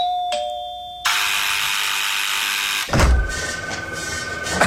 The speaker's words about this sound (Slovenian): Oprosti, kde so pa zvonec montirali?